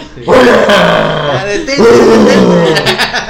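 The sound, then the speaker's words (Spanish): A person imitates a menacing, growling scream: two long, loud, raspy roars in a row, the second rising into a harsher, strained cry. “Sí, sí, pues sí, gruñen, gritan, gruñen.”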